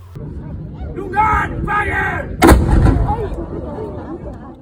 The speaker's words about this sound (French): Le jour suivant, on a visité la capitale de Malte, c'est-à-dire la Valette. Tous les jours à 12h et à 16h, un vieux canon tira blanc depuis une hauteur de la ville. On y était et le bruit nous a surpris.